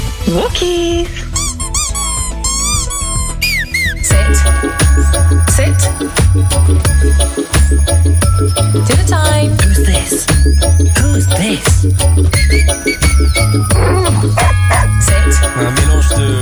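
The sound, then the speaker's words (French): A loud, upbeat reggae-style Christmas song composed for dogs, with a steady thumping bass beat, jingling bells, bursts of high squeaky toy sounds, and spoken instructions woven into the music. “un mélange de reggae, de sons de cloche et d'instructions Le titre a été enregistré dans les studios où sont notamment passés les … et les ….”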